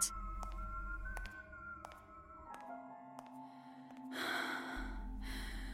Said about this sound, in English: breathing. It was all I could hear at first in the cadaver cooler. Hitched, irregular, close, all around me. At some point, I realized it was only me.